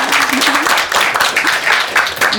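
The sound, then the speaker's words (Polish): Steady, dense applause from an audience welcoming radio presenter and fashion expert Anna Gacek, a loud continuous wash of many hands clapping with no gaps, and faint voices calling out beneath it. “Wielkie brawa.”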